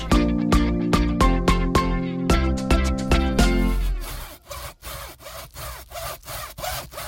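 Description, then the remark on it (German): A brief bright musical jingle gives way to rough, rhythmic scraping and sawing strokes of someone carving a pumpkin for Halloween, steady and moderately loud, with no voices. “können Sie mal ein bisschen leiser Ihren Kürbis da schnitzen?”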